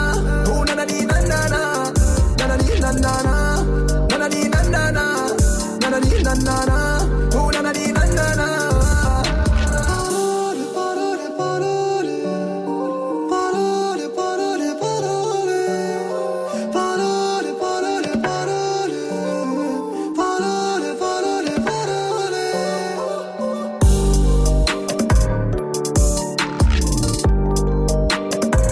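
A rap song plays loud and continuous, with vocals over a dense beat; the heavy bass drops out for a stretch in the middle, then comes back near the end.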